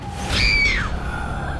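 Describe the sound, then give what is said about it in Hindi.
A sudden burst of loud, high-pitched screaming from several people on seeing a horrifying face, peaking and then sliding downward in pitch, lasting under a second over a dark, low rumbling background. “उसका भयानक चेहरा देखकर नैना और सभी के मुंह से जोरदार चीख निकल गई”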